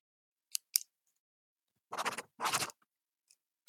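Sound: pen scratching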